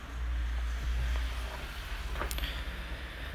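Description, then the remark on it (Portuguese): Steady low rumble of passing car traffic fills the background, a constant engine drone with a brief brighter hiss swelling near the end, continuous with no voices. “Mesmo esse barulho de carro irritante, me desculpa, inclusive.”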